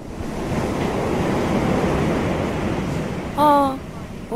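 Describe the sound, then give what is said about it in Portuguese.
A steady, hollow rushing like ocean waves heard through a seashell held to the ear, continuous, swelling gently before a brief tonal hum breaks in near the end. “Encostas um ao ouvido e ouves o mar.”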